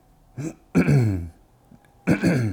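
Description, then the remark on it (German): Three loud throat-clearing bursts right into a new microphone: a short rasp, a longer rough hawk, a brief pause, then a final gravelly clearing. “Erstmal ordentlich reinröspern ins Mikrofon.”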